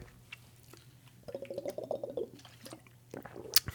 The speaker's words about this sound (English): drinking some water here for a change. Trying to drink as much as I can.